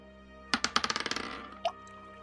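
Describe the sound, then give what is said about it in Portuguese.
Dice clatter across a hard table in a quick run of about a dozen bright clicks that speed up and fade, then one final knock a moment later, fairly quiet; the dice are rolled for a magic test and show 8. “Pode rolar um teste de magia.”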